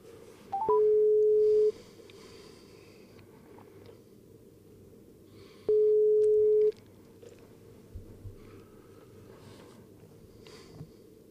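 A few quick dialing beeps, then a steady telephone ringing tone sounds twice, each about a second long and several seconds apart, over faint background noise, as a call is placed to a sports award winner.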